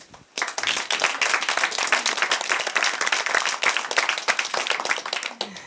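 An audience bursts into applause, a dense, steady patter of many hands clapping at once that holds at an even level for several seconds with no voices over it.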